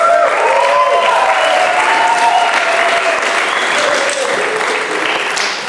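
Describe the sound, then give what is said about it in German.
Steady, dense applause from an audience at the Heartbeat conference as the in-house speaker is called onto the stage, a continuous wash of clapping at a loud, even level that tapers slightly toward the end, with a few faint voices or cheers mixed in. “ich bitte dich auf die Bühne. Applaus”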